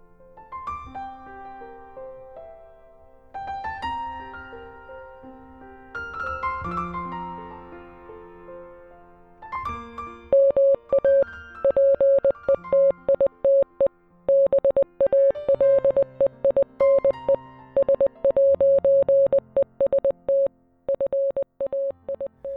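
An instrumental pop cover plays alone: a bright keyboard melody over soft chords, then a loud, steady beeping tone pulses in a Morse-code-like rhythm over the sustained harmony.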